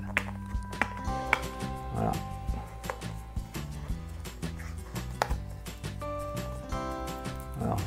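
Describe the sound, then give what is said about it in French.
Short, irregular scratching and scraping bursts as a small piece of adhesive tape is scratched off a box being opened, heard over steady background music. “On gratte.”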